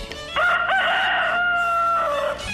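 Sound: rooster crowing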